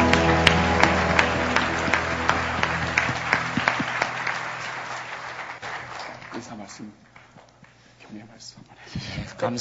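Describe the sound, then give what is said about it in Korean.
An audience at a worship service breaks into sustained applause of thanks to God, dense and loud at first, then gradually thinning out and fading over several seconds, with a few scattered claps lingering near the end. “우리 하나님께 감사의 박수 드리겠습니다”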